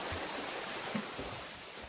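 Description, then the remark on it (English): Continuous churning and splashing of water from 142 hands swimming in a triathlon, like many swimmers thrashing through it at once, a dense steady wash of sound with no voices. “142 hands swimming a triathlon.”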